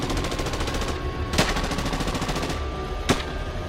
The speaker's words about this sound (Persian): صدای تیراندازی شدید و شدیدتر میشد